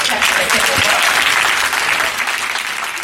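A crowd applauds the Lord steadily, dense clapping at a loud, even level before easing slightly toward the end.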